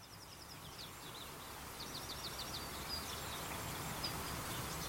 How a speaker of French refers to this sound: Le printemps est là. Les rayons du soleil se reflètent dans l'eau de l'étang tout proche. On entend des canards au loin qui barbotent et battent des ailes. Nous sommes dans une roselière.